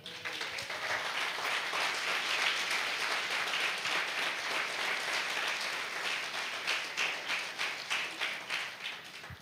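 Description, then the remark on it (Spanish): A church audience bursts into sustained applause for the Lord, many hands clapping densely for several seconds before the clapping thins into a few rhythmic claps at the end. “Dale un aplauso al Señor.”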